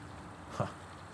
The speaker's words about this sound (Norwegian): Vi hører vannet renner rundt oss her, men den bekken er så liten Eh, at eh, det er ikke mye hjelp til å trekke båten over.